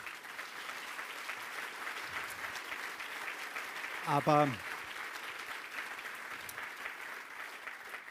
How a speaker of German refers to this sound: den dritten Applaus, und das ist mein eigenes Schlusswort